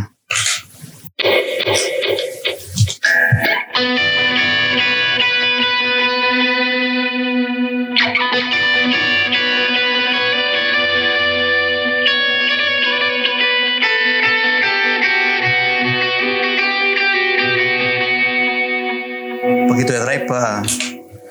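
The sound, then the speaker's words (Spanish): An electric guitar on a clean tone with a little delay rings out in sustained, shimmering chords, repeats trailing and overlapping into a dense wash; a brief burst of speech comes before and after the playing. “Un poquito de delay. Para la parte con como el pre”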